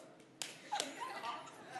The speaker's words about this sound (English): Do this handshake, because if you meet me, this is what's going to happen, okay? So, we call this the three claps and a snap, all right? Take it away.